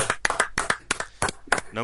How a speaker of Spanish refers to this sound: Un aplauso al Mirandés, por favor. Un aplauso.